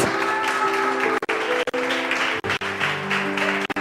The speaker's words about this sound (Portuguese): Bora aplaudir a Jesus.